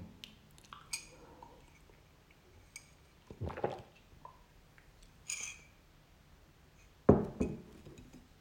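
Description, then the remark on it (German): Windows being shut: scattered clicks and light glassy knocks build to a couple of handling thumps, ending in one firm, louder bang as a window closes. No talking. “Ja, die Fenster mache ich natürlich, wie ihr hört, zu, ne?”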